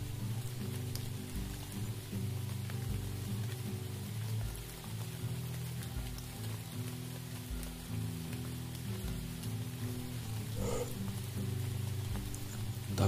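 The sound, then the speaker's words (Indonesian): Steady rain falls continuously with a soft, even hiss, joined by a low droning hum underneath; no voices are heard. “Hujan tak tambah membesar.”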